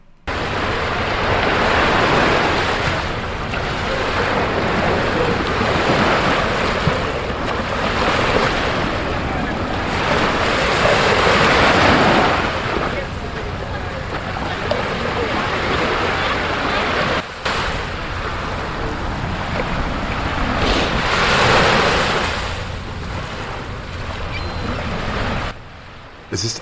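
Waves wash steadily onto Brighton Beach, New York, surging and receding in repeated swells with a constant broad hiss of surf and some wind rumble, fairly loud with no one speaking.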